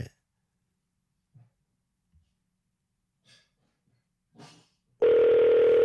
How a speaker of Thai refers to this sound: ตอนนี้เสียงโทรศัพท์ปะมันเป็นเสียงปลอมนะมันเป็นเสียงที่อ๋อโอเค